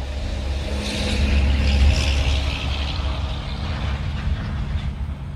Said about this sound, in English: Pardon the traffic.